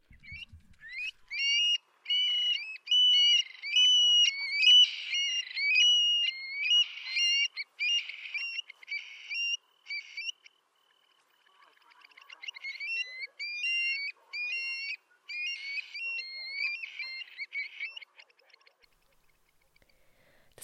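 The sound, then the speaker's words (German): A Eurasian stone-curlew song: a run of shrill, wailing whistled calls repeated in quick succession, clear, pausing briefly before another rising series of the same piercing notes. “Aber am besten ist es, wir hören uns den Trill einfach an.”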